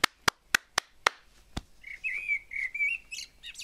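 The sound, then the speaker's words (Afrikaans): Six sharp, evenly spaced hand claps ring out, then a nightingale sings: rich, warbling whistled phrases rising and falling, moderately loud, with no voices. “Dis die mooiste geluid wat ek nog ooit gehoor het, roep hy en hy klap sy hande.”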